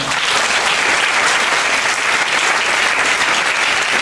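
Steady, dense applause from an audience fills the whole four seconds, a loud, even wash of many hands clapping with no talk over it.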